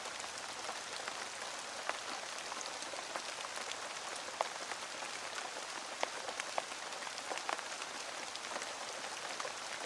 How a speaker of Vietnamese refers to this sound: cơn mưa chiều đổ vội trời tháng 8 là vậy cứ muốn mưa là ì ầm đổ nước chẳng có mây giăng hay gió thổi báo trước mưa càng lúc càng lớn hạt